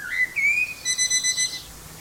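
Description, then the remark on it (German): A blackbird whistles a short run of clear, high, tonal notes, then a quick series of evenly spaced electronic-sounding beeps, imitating a loudly beeping alarm clock; fairly loud. “Und zwar eine Amsel, die einen Wecker imitiert.”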